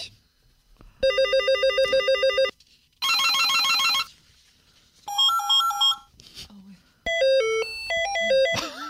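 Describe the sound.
Several short bursts of an old mobile phone ringtone, bright electronic beeping melodies with rapid stepping notes, each burst separated by brief pauses; faint voices murmur in the gaps.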